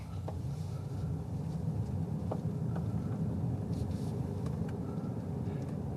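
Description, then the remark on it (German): A steady low rumble and soft hiss of car tires rolling over asphalt, continuous and even throughout, with a few faint clicks, as heard from inside the moving car. “Das sind vielleicht auch echt nur die Reifen, die hier auf dem Asphalt rollen.”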